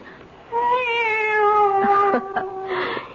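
A cat named Evil lets out one long, drawn-out meow, loud, rising slightly then fading, followed by a few short rustling knocks. No one speaks.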